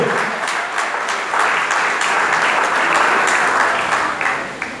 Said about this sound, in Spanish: Denle el aplauso a Cristo si se lo va a dar, por favor.